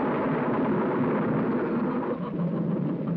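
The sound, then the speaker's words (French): A loud, continuous roll of thunder, rumbling and crackling throughout with no break, sounding muffled and thin like an old, low-fidelity recording; a thunder sound effect from an old film. No voices. “un son d'orage qui est le son du, film de Frankenstein, qui est vraiment un son d'orage pourri”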